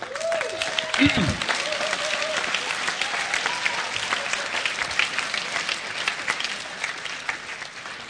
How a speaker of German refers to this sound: Wenn ihr es gehört hättet, hättet ihr nicht applaudiert.